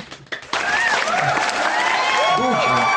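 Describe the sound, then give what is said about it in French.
A group bursts into applause for themselves after a brief moment, the clapping dense and steady, with cheering and whooping voices mixed into it. “Je, euh, propose un applaudissement général à nous-mêmes.”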